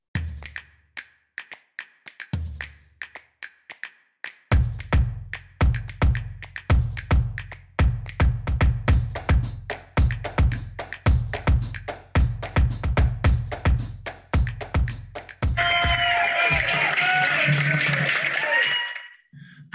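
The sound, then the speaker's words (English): A crowd claps in a steady, rhythmic beat that builds in loudness, then breaks into a sustained burst of loud cheering and shouting near the end, as a deputy is released from a hospital in Fort Worth. “That is the sound of a deputy being released from a hospital in Fort Worth.”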